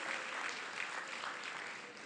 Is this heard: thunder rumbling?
no